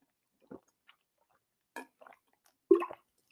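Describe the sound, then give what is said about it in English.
Someone drinks water, with a few wet gulps and mouth sounds spread over a few seconds, the last swallow the loudest, otherwise quiet. “Sorry, I had to drink some water.”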